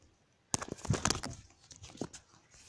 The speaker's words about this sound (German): Mist, mein Handy ist mir gerade runtergefallen, sorry.